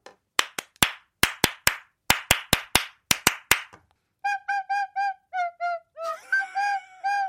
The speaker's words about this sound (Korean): 아니 박수가 나오고 음이 나오는 거라니까요. 같이 박수가 섞여 나온 게 아니라 제일 앞에 했던 거.